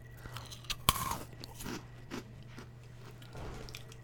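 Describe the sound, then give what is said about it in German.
A sharp crunch as a rock-hard item that looks soft is bitten into, followed by a few seconds of quieter crunchy chewing over a low steady hum. “Weiß ich mal, damit man mal einen Crunch hört.”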